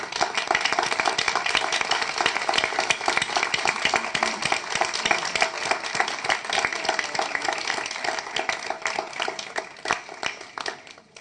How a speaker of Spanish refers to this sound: Por ello, quisiera también eh, nombrar aquí, hay varias monitoras, pedirles por favor que se pongan de pie y darles un gran aplauso por el trabajo que ustedes hacen día a día.